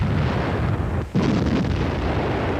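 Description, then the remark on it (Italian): Heavy, continuous battle noise of rebel cannon and machine-gun fire striking a German column at Bosco Martese, Italy, a dense roaring barrage of booms and rapid bursts that briefly drops out for a moment before resuming just as loud. “Quando arriva a Bosco Martese la colonna tedesca viene poi investita dal fuoco dei cannoni e delle mitagliatrici dei ribelli.”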